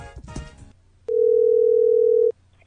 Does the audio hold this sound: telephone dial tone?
yes